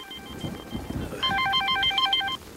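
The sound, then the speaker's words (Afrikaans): A telephone rings with a fast, warbling electronic trill for about a second, clear, following a stretch of low rumbling background noise. No one speaks. “Dis seker Adel wat jou soek antwoord.”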